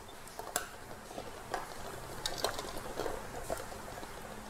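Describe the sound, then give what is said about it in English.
Eggs are scooped from a pot of boiling water and dropped into ice water: a string of light clinks and soft plops over a steady, low bubbling hiss, fairly quiet. “So I'm just gonna scoop these eggs out really quickly into the ice water it goes.”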